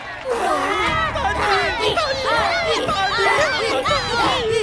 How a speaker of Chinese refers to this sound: 周围的黑白动物们震惊地张大了嘴巴，过了好久才爆发出惊天动地的欢呼。